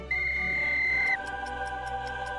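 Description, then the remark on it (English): A single loud, steady whistle blast lasting about a second, starting a 10-second timer for a quiz, then quiet regular ticking like a countdown clock over a faint lingering tone. “Okay, 10 seconds on the clock, and your time starts on the whistle.”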